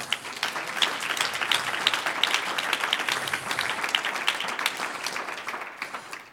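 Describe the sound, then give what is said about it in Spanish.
An audience breaks into sustained applause for the Lord, many hands clapping in a dense, steady wash that holds for several seconds before tapering off slightly at the end. “¿Cuántos dicen un aplauso al Señor?”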